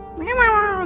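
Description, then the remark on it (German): A single drawn-out meow from the cat Jinx, clear, rising slightly and then falling away at the end, with no voices or other sounds around it. “und das ist meine Katze Jinx.”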